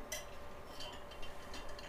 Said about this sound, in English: Sorry, quick sip of electrolyte.